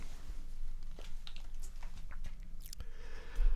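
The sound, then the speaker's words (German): Someone drinks a glass of water, with a few soft wet gulps and swallowing clicks scattered over a few seconds against a low background hum; no one speaks. “Ich gehe jetzt ein Glas Wasser trinken”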